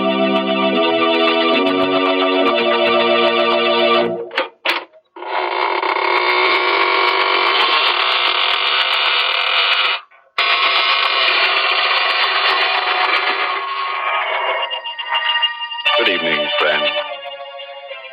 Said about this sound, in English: This is your host of the inner sanctum inviting you in through the creaking door.